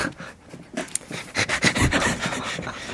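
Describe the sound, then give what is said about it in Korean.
A person imitates an excited puppy that has seen snow and is hopping about, panting in quick, breathy huffs with little yips mixed in, fairly loud, building in energy across a few seconds. “눈 보고 신난 강아지가 폴짝폴짝 뛰는 것처럼 읽어주세요”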